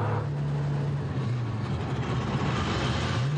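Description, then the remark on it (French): A steady, loud engine drone from inside an old English car, a model popular in the 1960s, being driven, with a low humming tone that shifts slightly in pitch and broad road rumble throughout, no talking. “J'ai pas grand plaisir à rouler dans les voitures modernes, donc dès que je peux, je roule dans mes propres voitures euh, avec euh, des odeurs, du bruit, comme vous pouvez l'entendre”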